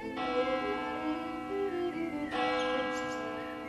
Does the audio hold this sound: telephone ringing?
no